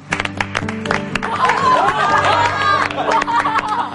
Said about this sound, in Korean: 오늘 또 열 번째 청강생활 모셔보도록 하겠습니다 오늘은요 비슷한 두 분이 함께 하십니다 자 큰박수로 맞아주세요